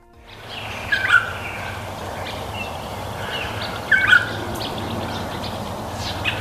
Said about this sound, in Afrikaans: Australiese wetenskaplikes leer bedreigde voëls hoe om te sing.